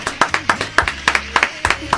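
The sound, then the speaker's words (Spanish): A small group on an Argentine radio programme claps for about two seconds for a listener's advice: loud, sharp, slightly uneven hand claps in a quick run, with a faint low hum underneath and no talking. “Sí, baje la música le vamos a hacer un aplauso.”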